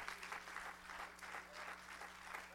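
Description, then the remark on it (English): A church audience claps hands together to the Lord in a steady, sustained burst of applause, many hands overlapping into a dense wash of sound with no talking. “Let's clap our hands to the Lord.”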